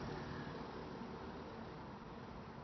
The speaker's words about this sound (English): I'm in my car again.